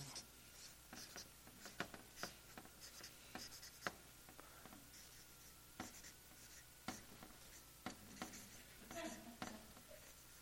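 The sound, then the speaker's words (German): A pen that writes poorly scratches across a board in a run of short, irregular strokes with brief pauses between them as the word "Wachstum" is written, fairly quiet, with no talking. “Der Stift schreibt leider nicht so gut.”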